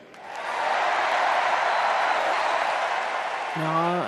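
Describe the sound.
A large crowd at a political convention breaks into loud, sustained applause and cheering when Obama says Osama bin Laden is dead; it swells quickly and holds steady for several seconds before a man's voice begins speaking over the fading noise.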